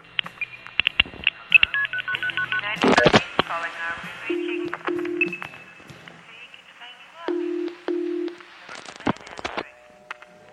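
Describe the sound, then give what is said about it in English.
Telephone dialing tones demonstrating dialing procedures: a quick run of beeps and clicks with a noisy crackling burst, then paired low steady tones repeating, loud against a faint hiss. “This demonstration will show the procedures and techniques used in dialing.”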